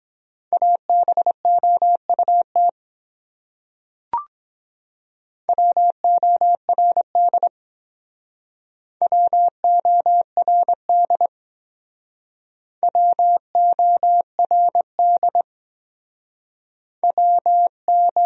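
Morse code words sent at 17 words per minute, tapped out as a steady, mid-pitched beeping tone in quick dots and dashes, in five separate bursts with pauses between them and a single sharp click in one gap.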